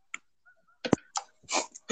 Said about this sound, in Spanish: Sonido de chasquido. Eso parece otra cosa y Es un chasquido. Mira, son mis dedos.